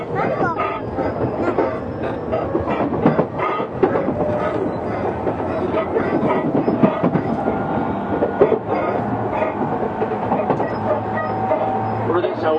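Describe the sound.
A Tokyu 6000 series electric train runs steadily between Azamino and Oimachi, a continuous rumble of wheels and motor with faint rhythmic clacking over the rails and occasional mechanical clicks, while voices murmur in the background.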